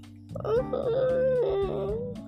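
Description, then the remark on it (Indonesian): A person voices a wavering, whimpering cry in imitation of a crying bird, one sustained quavering note lasting about two seconds, fairly loud, with no other talking. “Kalau suaranya burung nangis.”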